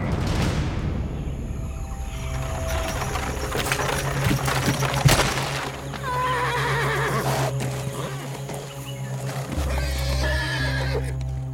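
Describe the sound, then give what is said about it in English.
Horses pulling a carriage that has stopped in the mud at the edge of the Dandak forest whinny loudly and repeatedly over a steady clopping of hooves, with a low rumbling bed underneath; no voices, just the busy sounds of the animals. “The horses whined, their muscles strained, but they could go no further.”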